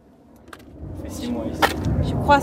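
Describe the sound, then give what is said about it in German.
A helicopter's low, rumbling drone grows steadily louder as it approaches overhead, heard from a seaside footpath on the Côte d'Azur, with brief murmurs of voices. “Dann hören wir einen Helikopter.”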